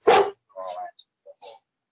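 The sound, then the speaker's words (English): A dog barks once, loud, then follows with a couple of shorter, whiny yelps and a soft final yip, all within about two seconds. “The dog's looking at you, I guess.”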